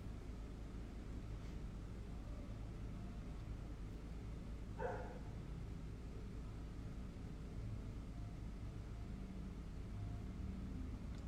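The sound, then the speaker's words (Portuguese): A single dog bark rises briefly out of a steady low street rumble, with traffic noise filling the rest of the quiet outdoor scene, on a street full of barking dogs. “A minha rua está cheia de cachorro latindo, por exemplo.”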